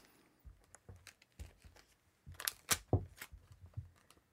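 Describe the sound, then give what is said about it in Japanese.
Crackly rips of adhesive tape being pulled, torn in short bursts and stuck in a cross shape onto a plunger, a handful of them, louder in the middle, with soft handling noises between and no voices. “テープをすっぽんに十字に貼ってみてください十字に”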